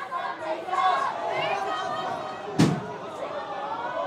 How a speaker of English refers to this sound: Okay, something fell. They knocked over a display.